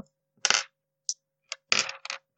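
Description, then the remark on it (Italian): Six dice clatter and tumble across a hard tabletop in a few quick bursts of sharp rattling clicks, with brief pauses between rolls and no talking. “fino una bellezza di 6 dadi, allora chissà.”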